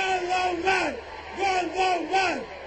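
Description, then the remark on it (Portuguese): Many voices chant together in a loud, rhythmic unison, repeating the slogan "Guterres Gondomar" in regular bursts with brief gaps, a rally crowd in Gondomar in a moment with Valentim Loureiro. “Por isso vamos todos gritar Guterres Gondomar!”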